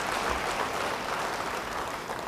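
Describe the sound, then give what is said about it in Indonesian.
An audience claps steadily for a couple of seconds during a church sermon, a dense, even wash of many hands at a constant moderate level, with no voices standing out. “Yang mau beri tepuk tangan bagi dia, haleluya.”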